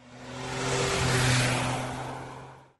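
A car engine swells in volume, revving and accelerating with a rising roar that peaks midway and then fades, heard on its own with no talking.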